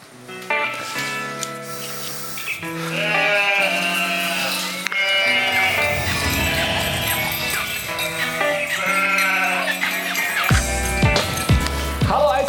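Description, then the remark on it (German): A flock of sheep bleats continuously outdoors on an alpine pasture in the Swiss Alps, many overlapping wavering calls at varying pitches, some loud, others softer, with a steady breezy hiss underneath. “Ich war ja auf einer Alm in der Schweiz unterwegs, um rauszufinden, beim Original Schafshirten aus der Schweiz, was denn das alles bedeutet.”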